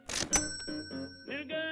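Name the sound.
cash register drawer opening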